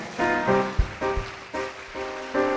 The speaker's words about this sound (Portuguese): Let's clap our brother. Please. Uma salva de palmas para nosso irmão.